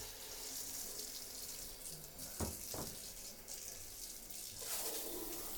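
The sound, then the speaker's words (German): A shower head sprays water in a steady, hissing rush that runs the whole time, with a couple of brief splashy knocks partway through, in a tiny bathroom where the spray reaches across to the toilet bowl. No one speaks. “Ich habe gerade festgestellt, dass die Brause vor meiner Dusche bis rüber in die Kloschüssel reicht.”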